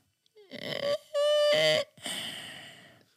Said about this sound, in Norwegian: ja for at, uh, det er noen ganger så jeg og frua hjemme så ligger vi litt sånn på, på forskjellige rom. At, oh, for at, når du hører den snorkelyden der